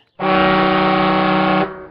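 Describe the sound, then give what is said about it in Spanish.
A single long horn honk, loud and buzzy, holding one steady low pitch for about a second and a half before cutting off sharply, with no other sounds around it. “Y nada más, pasamos al toque de bocina.”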